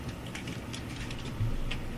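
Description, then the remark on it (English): A door being opened, with a few soft mechanical clicks and rattles from the latch over a steady, fairly quiet background hum; no one speaks. “I hear doors.”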